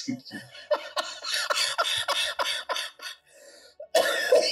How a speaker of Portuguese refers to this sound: eu com essa risada aqui horrível, cheia de tosse.